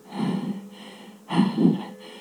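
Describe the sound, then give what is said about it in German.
Two heavy, breathy pants, each a rough burst of air with a short pause between, from someone out of breath after just having been running. No talking. “Verzeihung, dass ich jetzt so schnaufe, aber dennoch mich freut's.”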